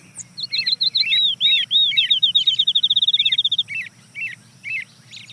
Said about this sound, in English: Starts off with the American robin, the early riser, hear some birds in the distant background, but the next bird to join is a field sparrow.